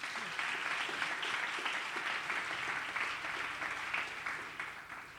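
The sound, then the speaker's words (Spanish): A crowd applauds a professional violinist steadily, a dense wash of many hands clapping that holds at an even, fairly loud level for several seconds, with no voices standing out. “También un fuerte aplauso para ella.”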